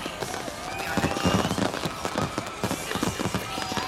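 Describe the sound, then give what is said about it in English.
Fireworks pop and crackle in rapid, overlapping bursts in the night sky, a dense, steady barrage of sharp bangs with no pause between them. “Too many fireworks, too fast.”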